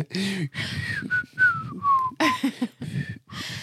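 Someone whistles a short, wavering melody close by, the pitch sliding down in long glides between brief breathy pauses, fairly loud over a faint background.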